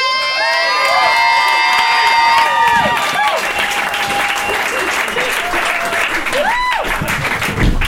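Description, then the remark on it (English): A comedy show audience at the Alberta Street Pub bursts into sustained applause for a comic, mixed with high-pitched cheers and whoops, loud, continuing steadily for several seconds with a rising shout near the end. “Give a round of applause for the legitimately amazing Jason Trager.”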